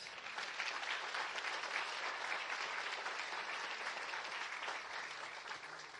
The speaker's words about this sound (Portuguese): Será que você pode aplaudir Jesus?